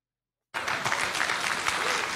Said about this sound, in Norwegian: som spiser cornflakes.